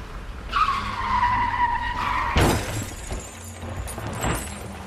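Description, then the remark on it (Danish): A car's tires screech in a long skid, then a loud crashing impact as the car hits a large figure on the road in the dark and pouring rain, followed by scattered clattering and breaking debris. No one speaks. “Men inden hun overreagerer, rammer hun det med et kæmpe brag.”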